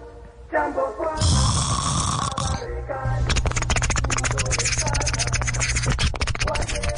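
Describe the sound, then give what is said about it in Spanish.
A person snores loudly: a harsh, raspy snort, then a long, buzzing, rapidly rattling snore that holds steady for several seconds. “Me refería a dejar de roncar.”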